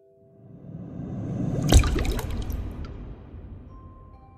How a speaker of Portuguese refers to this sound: Põe a, a tua mão cortada acima das palmas da estátua. E aí tu vê o, a primeira gotinha pingando da tua mão e caindo na pedra da estátua.